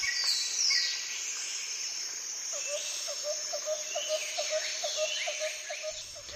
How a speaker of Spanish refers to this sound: Hemos escuchado los pájaros